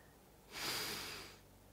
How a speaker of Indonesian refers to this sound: Coba deh, tarik nafas